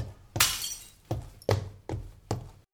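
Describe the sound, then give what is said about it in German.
Glass shatters with a loud, bright crash, followed by several more breaking impacts at roughly even intervals, each a sharp burst with trailing tinkles, clear with no talking. “Vorsicht, das Glas.”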